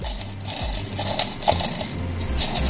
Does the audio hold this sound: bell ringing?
no